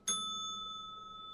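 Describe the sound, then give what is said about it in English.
A single bell is struck once with a sharp, bright attack, then its clear metallic tone rings on and slowly fades, sustaining through to the end with no talking. “Give me ring the fucking bell, Dan.”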